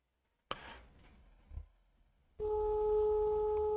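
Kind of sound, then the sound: signal or alarm, phone call ringing tone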